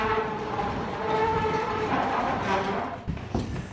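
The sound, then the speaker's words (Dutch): Heavy millstones inside the Admiraal de Krijtmolen, a chalk windmill, grind seashells in a steady, loud rumble with gritty crunching and a faint droning hum, continuous, with a brief shift in the grinding near the end. “Dit is dus het geluid wat de stenen maken als zij schelpen vermalen.”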